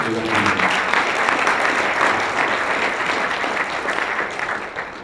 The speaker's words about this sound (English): So I'd really like to give him a round of applause because he's put on some of the biggest events now in, in Toronto and he keeps them going.